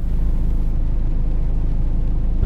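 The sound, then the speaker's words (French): A steady car engine rumble idles continuously, heard from inside the car while waiting parked in front of someone's home, a low droning hum with no voices, holding even and unbroken throughout. “Je crois que c'est l'endroit dans ma vie où j'attends le plus dans, ma voiture.”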